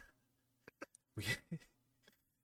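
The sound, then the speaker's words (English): A person imitates a horse: a few quick tongue clicks like hoofbeats, then a loud breathy snort that trails into a short voiced grunt, with no other talking. “Anyways, um, that was my horse noise.”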